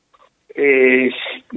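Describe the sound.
A brief burst of a doctor's voice coming through a telephone speakerphone (hands-free) during a phone interview, thin and muffled with a narrow, boxy tone, heard for about a second amid short pauses.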